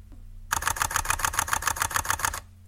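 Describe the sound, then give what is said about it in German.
A camera shutter fires in high-speed burst mode at a setting of 500, about eighteen crisp, evenly spaced clicks in under two seconds, clear against a quiet background with no talking. “Das ist die Serienaufnahme im highspeed modus”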